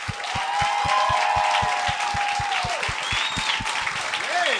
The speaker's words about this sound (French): Fait que, euh, mesdames et messieurs, j'aimerais ça qu'on leur donne une très bonne main d'applaudissement.